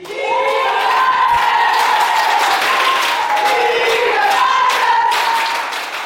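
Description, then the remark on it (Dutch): A group claps loudly and continuously for about six seconds in a dressing room, with excited shouts and cheering voices rising over the applause, as Marco van Basten hands over the award naming Netherlands coach Serena Wiegman best coach of a women's team. “Ze waren niet bij de uitreiking, maar toch kregen ze de prijs in de kleedkamer uit handen van Marco van Basten. En zo klonk het ongeveer.”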